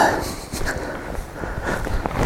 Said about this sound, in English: just before this guy tramps through the scene ah, my poor knees I think this is another photographer who is too late. when he has walked up here in the rain like a fool.